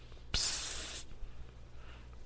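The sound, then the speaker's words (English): A voice imitates a kissy sucking catcall: one sharp smack followed by a breathy, hissing draw of air lasting under a second, then quiet. “I don't know what it is about Mexican men and like making cat noises and, and like like kissy sucky noises.”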